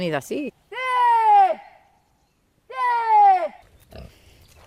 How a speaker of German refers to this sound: Dann lässt sich die Herde doch noch blicken. Die Schweine wühlen im Halbschatten in einer Senke. Wegen ihrer grauschwarzen Hautfarbe sind sie erst auf den zweiten Blick zu erkennen. Neugierig kommen ein paar Tiere näher.